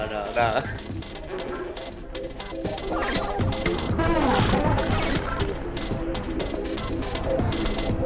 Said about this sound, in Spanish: empezó a hacer música y empezó a, hacer, a grabar su flatulencia anales? Y, de fondo estamos escuchando una música así, bueno, Así como, una especie de tecno de peo.